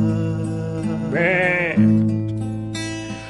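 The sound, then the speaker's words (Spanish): A sheep grazing on grass lets out a single quavering bleat, clear, its wavering cry rising then falling over a steady low droning tone that continues afterward. “Estaba sentado sobre el pasto, mirando las ovejas pastar.”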